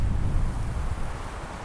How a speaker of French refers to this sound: J'écoute le vent, je le sens sur ma peau.